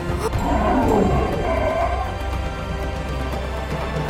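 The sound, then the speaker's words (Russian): Deep, rumbling roars and growls of lions and tigers in an arena fill the space, loud, with a sustained, throaty snarl that swells early on and then settles into a continuous low rumble. “На арене что-то невероятное происходит Лев подошел к целителю и, и как кошка лежит ему ноги А, а тигры-то вообще легли вокруг него кольцом Словно защищая”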